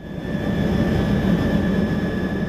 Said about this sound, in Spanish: Un equipo de rescate se montó en un helicóptero y voló hasta las Islas Andamán.